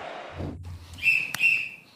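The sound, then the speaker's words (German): A referee's whistle for kick-off gives a shrill, steady blast of about half a second, broken by a sharp click in the middle. Low thuds and rumble come just before it. “An Pfiff”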